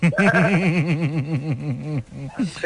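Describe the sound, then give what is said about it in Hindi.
A human voice imitates a goat's bleat, a loud wavering 'maa-aa' with rapid trembling pitch sustained for about two seconds, followed by a short second bleat, mimicking a goat on the day before its Qurbani sacrifice. “कुर्बानी से एक दिन पहले वाली बकरी की आवाज है”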